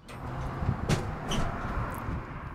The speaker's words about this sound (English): A rusty metal latch creaks as Wendy Lu McGill opens a rail car shipping container located in southwest Denver